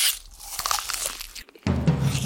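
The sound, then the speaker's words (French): Crisp crunching of a hungry person sitting down to eat, biting and chewing food, several quick crackly bites in a row, followed by a brief pause and then a denser, steadier sound. “Il se met à table, car il a grand faim.”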